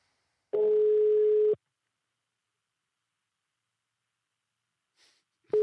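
A telephone ringback tone: a steady electronic tone sounds for about a second, followed by a long silent gap, then a faint breath and the tone starting again at the end.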